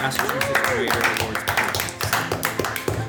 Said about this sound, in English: Um, but once again, I think you guys need to give yourselves a round of applause for first place